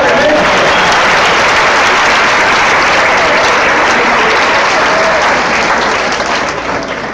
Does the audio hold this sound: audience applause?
yes